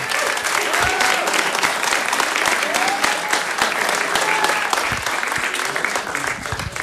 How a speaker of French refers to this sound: Max d'applaudissements